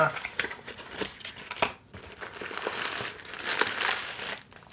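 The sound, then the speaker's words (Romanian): Plastic bags from a Cargus courier package crinkle and rustle continuously, with bursts of crackling as they are handled and pulled apart while unpacking a delivery of Halewood Wine and Spirits wine, the noise rising and falling for several seconds. “Am aici ceva aici sau doar pungi? Cred că adică doar pungi.”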